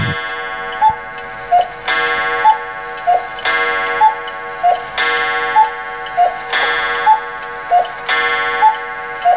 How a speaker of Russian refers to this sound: В середине 80-х годов одно из популярнейших вещей в советских квартирах были часы с кукушкой.